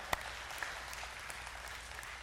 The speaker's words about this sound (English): You want to clap? It's a good time to clap, okay?